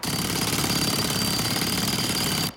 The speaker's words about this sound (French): Du béton armé. Il n'y a rien qui résiste à un marteau-piqueur. Surtout pas des oreilles.